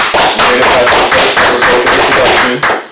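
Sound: hands clapping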